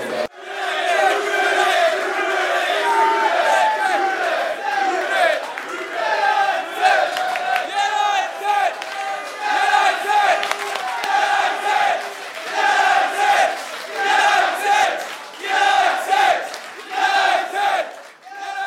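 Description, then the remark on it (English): A crowd of voices in a Wetherspoons pub in northwest London chants loudly and rhythmically in unison at a United football watch party, the football-style singing swelling in repeated waves throughout, boisterous with no pauses. “So the sounds of northwest London's Wetherspoons there, a, a most random place to hold a United party, but it was a it was quite a party and magnificent atmosphere.”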